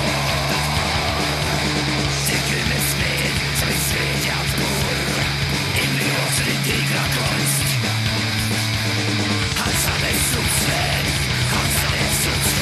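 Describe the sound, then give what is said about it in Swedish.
Loud, dense rock music with a driving beat and a distorted wall of guitars, while a prominent bass guitar plays stepping note lines that stand out clearly low in the mix. “Skönt också att basen är så framträdande. Man eh, hör ju vad han håller på och lajar med.”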